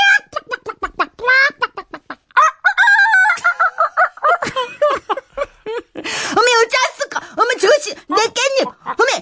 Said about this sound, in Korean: 그렇게 닭들은 마당에 나왔고요. 온 마당에서 푸드득거리면서